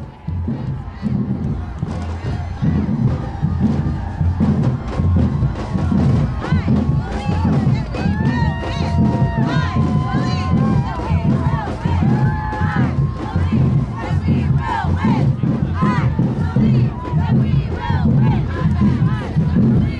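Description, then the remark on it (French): A large crowd of people marching in Washington in January 2017, with a dense, steady roar of many voices and raised shouts and chants rising over the din, loud throughout. “Fermez les yeux et plongez avec moi dans le bruit que fait un peuple en marche.”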